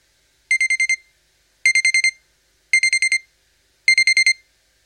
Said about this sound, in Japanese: ピピピッと目覚ましの鳴る音で目が覚めた。